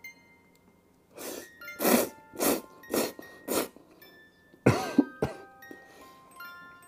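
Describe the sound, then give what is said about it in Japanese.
Loud slurping of ramen noodles as someone eats: a rhythmic run of five quick sucking bursts, a short pause, then two stronger slurps with faint chewing noises between. No one speaks. “今止めてる方もいるかもしれないですね咀嚼音するからいただきます。”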